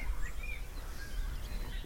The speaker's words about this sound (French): On ne peut pas dire que c'est insupportable ce bruit. Il y a des papillons, il ne faut pas de bruit en Bon, il y a les hirondelles qui chantent un peu se baladant, et c'est tout.